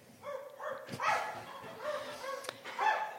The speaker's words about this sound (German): Irgendwo in der Ferne hören sie einen Hund bellen.